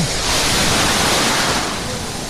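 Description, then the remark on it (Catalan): Sea water splashes and swirls around feet wading in the shallows, a loud, steady rushing wash with no distinct separate splashes and no voices. “Ostres, oh, ja, estic, ja, estic, ja estic a l'aigua, ja, estic, ja tinc els peus a l'aigua.”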